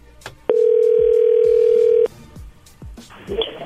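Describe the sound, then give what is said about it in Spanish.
A single steady electronic ringing tone from a phone call sounds clearly for about a second and a half, then stops, with faint background voices and small noises around it. “Oye, entró ahí, contéstale tú.”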